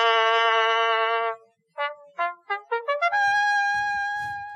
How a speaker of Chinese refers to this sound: 各位现在听到的是某人剔牙的 ASMR。